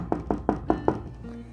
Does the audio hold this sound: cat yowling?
no